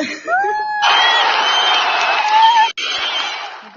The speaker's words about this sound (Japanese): 大歓声よ。大歓声。